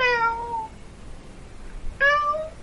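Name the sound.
domestic cat meowing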